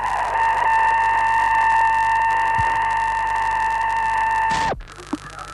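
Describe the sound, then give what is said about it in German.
Satellite radio signals from Sputnik 2, recorded by the university observatory in Bonn, come through as a steady, unbroken electronic tone over faint static hiss, holding for several seconds before cutting off abruptly near the end. “Hier noch einmal die Signale des Sputnik 2, wie sie heute aufgenommen wurden von der Universitätssternwarte in Bonn.”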